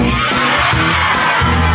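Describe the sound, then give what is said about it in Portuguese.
A crowd of voices bursts out together imitating lion roars when called on to imitate animal sounds: a loud, sustained group growl lasting under two seconds with overlapping yells and whoops, energetic. “Ele fez leões que.”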